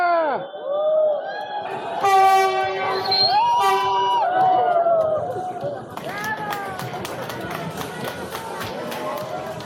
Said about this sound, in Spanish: Y pues bueno, ahí escuchan la gente aplaudiendo. Ese, ese momento en el que aplauden y gritan bravo es el momento en el que va entrando el tren a recogernos en la primera estación Cantepec.